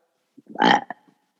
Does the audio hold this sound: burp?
yes